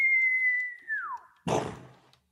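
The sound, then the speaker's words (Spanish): A person whistles to mimic an arrow in flight: a steady high note that bends sharply downward, then a brief noisy burst like an impact, fairly loud. “Todos ven como una flecha sale”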